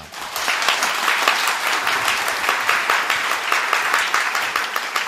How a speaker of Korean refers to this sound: 큰 박수로 맞아주시기 바랍니다.